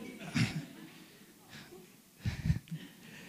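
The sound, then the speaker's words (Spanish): A voice mimics snoring with two rough, rattling snorts about two seconds apart, fairly loud, separated by quieter breathy sounds. “A algunos se le nota que no está muerto por cómo ronca, ¿verdad?”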